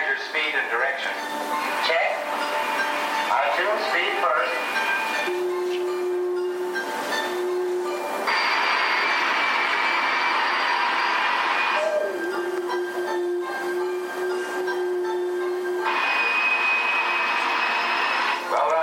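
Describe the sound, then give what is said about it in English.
A sustained high-pitched mechanical whine from a gas turbine powered GM concept vehicle, steady and loud, with its tone shifting and swelling in stages; muffled voices are audible near the start. “the reason that you hear that high pitched whine is that is a gas turbine powered vehicle.”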